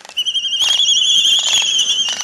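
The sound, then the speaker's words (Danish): An albatross call, a loud, shrill sustained whistling tone lasting about two seconds, broken by several harsh rasping bursts, with no talking. “Det er en albatros”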